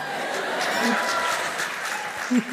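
Thin, scattered applause from an audience in Hannover clapping for their own city, a modest patter of claps with a faint murmur of voices mixed in, fairly steady for a couple of seconds without building up.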